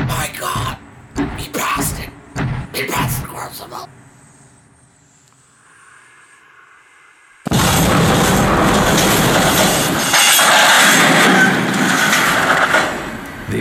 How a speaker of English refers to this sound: The express plowed through a wooden barrier and plunged into the ravine.